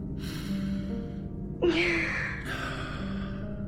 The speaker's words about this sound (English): In, out. Yeah, that's much better. Keep breathing, in and out, just like that.